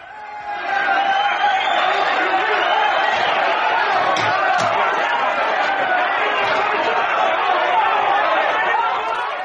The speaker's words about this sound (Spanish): en mi tierra la gente ha salido a protestar. creo que se les ha ido un poco eh, la, protesta.